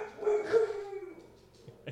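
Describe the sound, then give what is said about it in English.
A dog barks loudly in an alarmed burst, its strained, whining yelp stretching across the first second before trailing off into a few shorter, softer barks. “It's okay. Pup. They're just they're just alarmed.”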